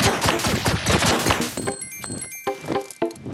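A dense burst of rapid, crackling game sound effects like gunfire and clinking debris, then sparser sharp hits and bright, high tonal chimes over a quieter background.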